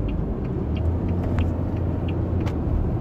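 Steady low rumble of a car engine and road noise from inside a moving vehicle, continuous and fairly loud, with faint ticks and small knocks scattered on top; no one speaks.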